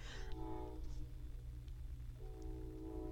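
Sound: passing train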